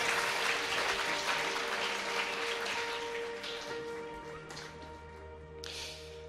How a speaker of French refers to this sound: Voilà, on peut les applaudir.